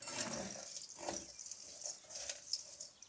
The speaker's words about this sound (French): Ça y est, mon granola est cuit. Donc je le sors du four, je le mélange bien. Et j'écoute ce petit son des graines de courge qui sont encore bien chaudes et qui sonnent creux, qui font un peu comme des bâtons de pluie, le bruit de la pluie.